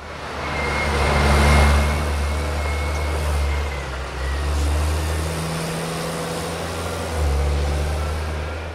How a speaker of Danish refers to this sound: Den summen, man kan høre i baggrunden her, det er en af gravmaskinerne, som lige nu er i gang med at grave det øverste jordlag af for at komme ned til en af minkmassegravene.